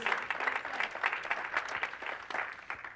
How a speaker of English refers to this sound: Oh, come on, give a Lord a hand clap of praise.